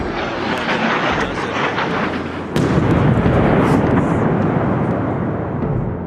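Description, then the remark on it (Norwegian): A heavy, continuous roar gives way to a sudden loud blast midway, followed by a louder, sustained rumbling boom that slowly fades, with no voices present: large explosions from Russian missile strikes in Kyiv, Ukraine. “Several large explosions in the Ukrainian capital Kyiv.”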